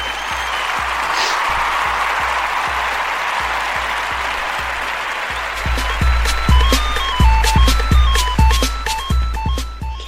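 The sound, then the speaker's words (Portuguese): A short applause jingle: a steady wash of clapping and crowd noise, joined halfway through by a bright, bouncy electronic melody with punchy beats that plays over the clapping to the end. “E eu toquei a vinheta errada, que era palmas.”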